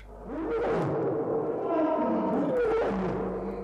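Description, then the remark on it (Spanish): A lioness in a group of lions roars in a deep, drawn-out rumble that rises and falls, loud, with a low throaty resonance filling the whole stretch and no other voices. “De pronto, una leona del grupo empezó a rugir.”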